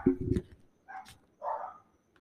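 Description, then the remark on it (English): Dogs bark in three quick bursts: a low, loud first bark followed by two higher yapping barks, with short pauses between. “Oh my goodness, my dogs.”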